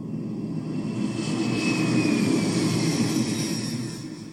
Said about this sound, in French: Vous êtes prêts Décollage immédiat.